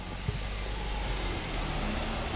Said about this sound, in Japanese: はあ車もたくさん